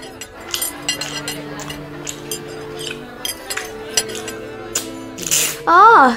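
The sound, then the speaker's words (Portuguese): Metal cutlery clinks and scrapes against porcelain dishes while people eat in Italy, in quick, irregular taps over a soft, steady background hum, with a brief voice rising near the end. “E esses são talheres, utensílios feitos para comer.”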